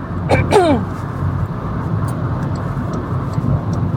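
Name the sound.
car interior driving ambience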